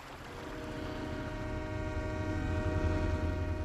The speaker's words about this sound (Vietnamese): Nhưng nghe có tiếng còi tàu lửa kéo inh ỏi, Đông Ghi lại lật đật chạy về chiếc cầu sắt.